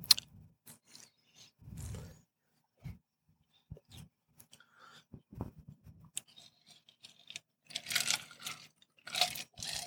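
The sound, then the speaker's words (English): Sipping of a mixed drink from a glass, with small clicks and clinks of glassware and ice, soft swallowing, and a few louder slurping, airy bursts near the end, with no talking. “A little dead air there while I get a sip of my mixed drink.”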